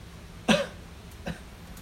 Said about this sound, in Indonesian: ya kenapa jadi batuk-batuk juga Enggak gue sebenernya enggak batuk gue ada kayak nyangkut sini ya uh-uh. gatel kayak gitu tuh